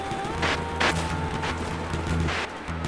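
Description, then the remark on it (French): Several loud explosive blasts burst out one after another over a continuous low rumbling drone, like a barrage, with no voices present. “Soudain, on entendit une Une explosion.”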